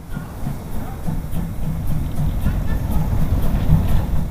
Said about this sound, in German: Drei oder vier historische Waggons hinter einer Dampflok. Eine Stunde dauert die Fahrt auf der 17,3 Kilometer langen Strecke nach Oberwiesenthal.